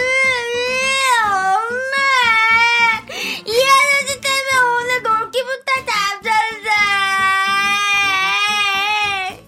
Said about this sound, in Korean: 아이가 울음을 그치지 않아서 아이 부모님한테까지 사죄해서 드리고요.